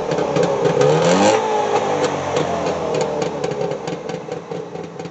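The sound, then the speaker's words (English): The engine of a Trabant, a tiny car, runs loud, its pitch climbing in a brief rev before settling back into a rough, buzzing idle with sputtering pulses. “Trabants are these uh, tiny, shonky cars.”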